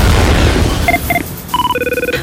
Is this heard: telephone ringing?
yes